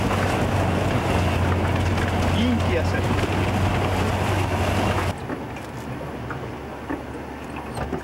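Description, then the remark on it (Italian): A car engine rumbles steadily under a constant rush of splashing water as a vehicle fords a river, sinking until the water reaches the window, with a man's voice exclaiming; the noise drops abruptly quieter after about five seconds. “guarda eh, noi come sprofondiamo, la fino sul finestrino”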